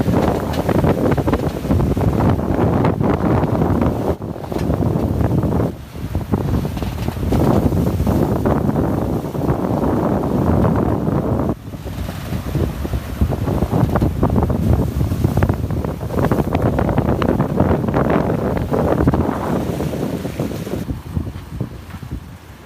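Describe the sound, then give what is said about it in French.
Strong wind of about 20 knots roars steadily across the microphone on a sailboat at sea during a Pacific Ocean crossing, with rushing water and wave wash underneath, loud and continuous with brief gusting dips, no voices. “Et on a réussi à enlever le Jenaker avec 20 nœuds de vent.”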